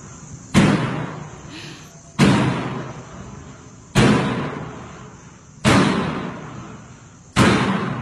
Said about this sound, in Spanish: Esto es en base en el video que pusimos, donde está la morgue y se abre y se cierra una puerta sin que nadie lo, la esté empujando en la morgue.